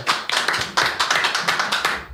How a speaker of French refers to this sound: Oui, ben, ceux qui sont là, vous pouvez applaudir